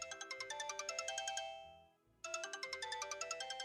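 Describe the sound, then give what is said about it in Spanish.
A phone ringtone plays a fast, repeating electronic melody of bright pulsed notes, pauses briefly as it fades, then starts again loudly, with no voices; the call is from Fábricas de Francia. “Ay, discúlpame en un momento, por favor. Déjame ver quién es.”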